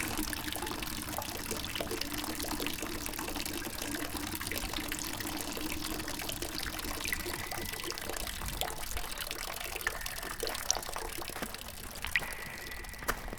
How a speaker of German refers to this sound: Sieh nur, Ingron, eine Quelle. Hier werde ich jetzt meinen Eimer füllen.